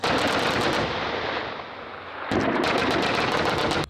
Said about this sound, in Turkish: Ateş Serbest 2020'de yerli ve milli üretim fırtına obüsleri, Korkut hava savunma sistemleri ve milli piyade tüfeği ile atışlar yapıldı. Belirlenen hedefler tam isabetle vuruldu.